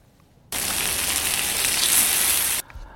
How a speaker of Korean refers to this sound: 이거 뭔지 아시겠죠? 치, 치. 네, 고기 굽는 소리입니다. 한 번 더요. 약간 탔을 것 같죠?